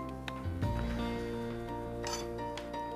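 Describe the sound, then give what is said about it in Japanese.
A knife cuts a peach into three pieces on a cutting board, with a few brief, muffled taps spaced across the moment and steady background music playing underneath. “でえー、とあとはこの切った大きいところの部分を、まあ、食べやすいサイズに、えー、まあ、今ちょっと3等分しますけども、うん、3等分に切っていただいて”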